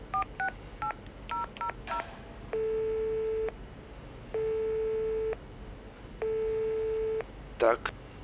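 A quick run of keypad dialing beeps as a man calls a doctor on a mobile phone carried on his belt, then three steady, evenly spaced telephone ringing tones over a faint line hiss, ending in a brief crackle as the call connects.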